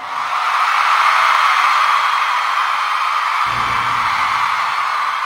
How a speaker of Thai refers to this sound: อย่างเช่นตอนเปิดมาปุ๊บทุกคนกรี๊ดดังนะเดี๋ยวทุกคนลองกรี๊ดให้ให้ให้พี่ได้ยินหน่อย